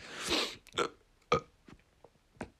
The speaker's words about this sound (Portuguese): Uh, desculpem, tive de arrotar, pá, faz parte.